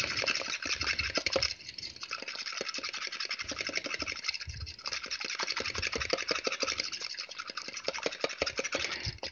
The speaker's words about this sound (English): We put our eggs in a uh, perfect mixing bowl. Now, here's a cool little thing we're going to do. I'm going to beat these eggs up almost like we're going to scramble them.